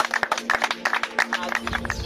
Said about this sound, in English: We clap for you. We thank you.